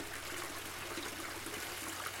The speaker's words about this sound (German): wo die Menschen Schlange stehen, um das geweihte Wasser in große Kanister abzufüllen.